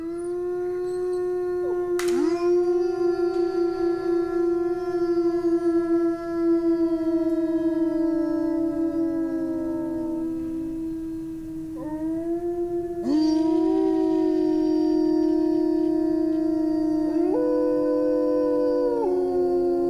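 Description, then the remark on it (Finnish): Several wolves howl together in long, sustained, overlapping tones that rise and waver, continuous and fairly loud throughout with no talking, as new voices join in chorus. “Ulvomalla susilauman jäsenet pitävät yhteyttä toisiinsa.”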